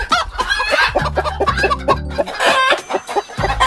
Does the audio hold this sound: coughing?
no